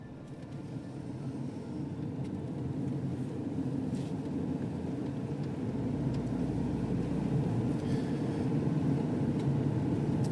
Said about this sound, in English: I hope you can hear over the traffic noise.